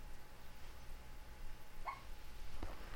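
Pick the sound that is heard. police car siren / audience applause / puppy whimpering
puppy whimpering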